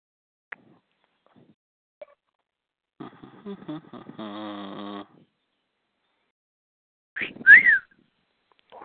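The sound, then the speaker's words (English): A female dog makes a string of whiny, grumbling vocal noises: a drawn-out groaning whine, then a sharper yelp-like squeal a few seconds later, with quiet gaps between and no talking. “My dog has a lot to say tonight. I don't know if y'all can hear her.”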